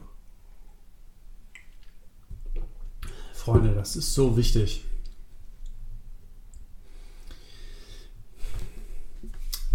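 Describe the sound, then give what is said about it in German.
Someone takes a sip of water, with wet mouth clicks, a swallow and a sharp breath through the nose, plus a brief spoken phrase and quiet room noise. “So, jetzt müssen wir noch kurz einen Schluck Wasser nehmen hier.”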